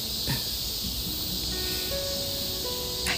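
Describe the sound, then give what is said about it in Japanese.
A dense, steady buzzing drone fills the air, many minminzemi (robust cicadas) singing together outdoors, with a constant high hiss and faint shifting tones layered throughout, no voices present. “いよいよミンミンゼミの声もいい感じになってきました聞こえますかどれだけの命がこの交響曲を奏でてくれているんでしょうね嬉しくなります”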